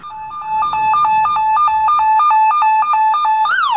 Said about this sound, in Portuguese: Chega a ambulância.